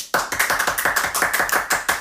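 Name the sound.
hand clapping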